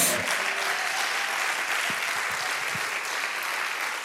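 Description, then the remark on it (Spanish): Sustained applause for God from a large audience fills the space, a dense, steady wash of clapping that stays loud and even throughout with no voices standing out above it. “Dale un aplauso a tu Dios.”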